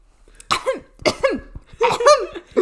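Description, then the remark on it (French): Strained coughing of a young man choking on hot tea: three sputtering, raspy bursts in quick succession, each trailing into a wheezy gasp, with no talking over it. “Alistair faillit s'étouffer avec le thé.”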